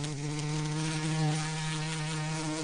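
A hoverfly's wings buzz in a steady, low droning hum much like a wasp, unbroken and fairly loud for the whole few seconds, with no voices.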